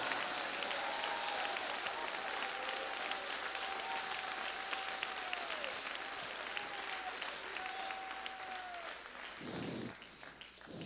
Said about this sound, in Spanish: Oh, si va a aplaudirlo, apláudelo con libertad.